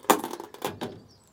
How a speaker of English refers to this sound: It is a bit cooler in here than I might expect. I'm just closing the window, that's what that noise is.